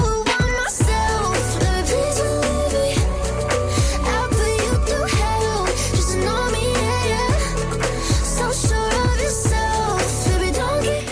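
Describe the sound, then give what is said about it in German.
A pop song plays loud and full throughout, with a steady, punchy beat driving under layered synths and bright melodic lines. No one talks over it. “der Song … ist jetzt draußen”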